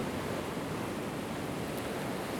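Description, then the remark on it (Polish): Ocean waves wash onto a sandy shore below cliffs in a steady, unbroken roar of surf, moderately loud and constant throughout, with no voices or other sounds; the ocean is calm today. “Za mną jest ocean. Bardzo głośny, potężny, lecz dzisiaj bardzo spokojny.”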